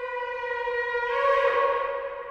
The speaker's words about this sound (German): Das jüdische Jahr beginnt mit Rosh Hashanah, dem Neujahrsfest, an dem das Schofar geblasen wird, das Witterhorn, das wir gerade hören.